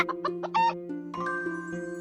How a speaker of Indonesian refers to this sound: Ada ayam juga.